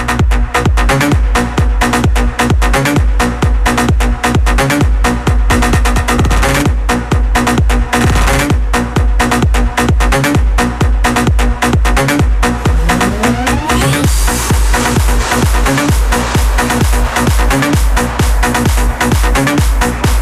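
A loud electronic dance track pumps with a steady, driving four-on-the-floor beat and dense synths, building through a rising sweep partway in before the full groove drops back in. No voices.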